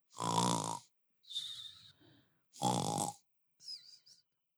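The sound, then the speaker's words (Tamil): A voice imitates snoring: two loud, rasping inhales, each followed by a softer whistling exhale, in a slow repeating rhythm. “ஒரு பத்து நிமிஷம் அமைதியா இருந்துச்சு ராமு கொரட்ட விட ஆரம்பிச்சான்”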